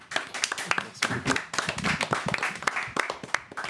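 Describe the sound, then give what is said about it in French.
A small group applauds after a song is performed, dense overlapping claps rattling steadily for a few seconds at moderate loudness, with some voices murmuring underneath. “Bravo, On applaudit.”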